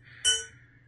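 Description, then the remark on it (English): A single sharp metal-on-metal strike gives a bright, high ding that rings briefly and fades over about half a second, heard alone against a quiet low hum. “Ding. Yeah, there you go. Metal on metal.”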